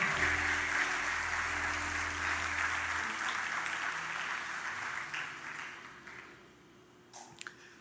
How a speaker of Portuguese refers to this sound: Só quem se, apro se apropria disso, dê uma salva de palmas, glorifica, exalte ao Senhor.